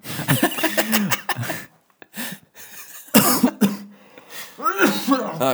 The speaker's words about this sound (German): Gesundheit, ne? Voll reingehustet. Das schneiden wir mal raus.